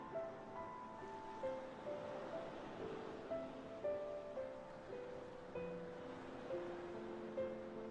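Soft ocean surf rolls in a steady, hushing wash, blended with gentle sustained musical tones drifting over it at a low, calm level. No one speaks.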